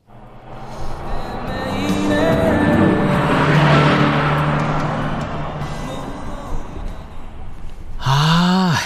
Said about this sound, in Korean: 자, 말씀드리는 순간 옆에 차가 지나가는군요. 음악 소리 들립니다. 무슨 노래 듣고 있을까요?